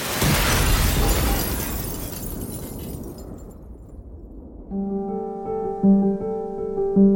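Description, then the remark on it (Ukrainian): A loud artillery shell explosion bursts at the start and rumbles away over a few seconds, then steady tonal music with low sustained notes takes over. No one speaks. “Колись цих скульптур було вісім, проте під час Другої світової війни одну з них знищив снаряд.”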